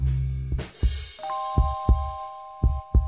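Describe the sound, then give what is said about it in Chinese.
A deep, pounding heartbeat thumps in paired lub-dub beats, three heavy double pulses at a slow, steady pace, over a low drone and faint sustained tones with no one speaking. “我趴在他的桌面上，能感觉到自己扑通扑通的心跳。”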